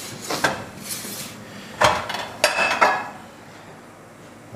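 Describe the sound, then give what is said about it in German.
Metal cookware clanks and clatters in a few sharp bursts while cooking, a frying pan being set out and pots knocking together, with quieter scraping between the hits. “So, ich richte mir jetzt gleich die Pfanne her.”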